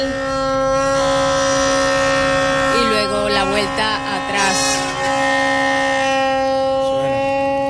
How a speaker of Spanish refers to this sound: Suena, suena, ¿eh? suena la bocina. Numerosas embarcaciones que hacen sonar sus sirenas. ya en el, en el puerto.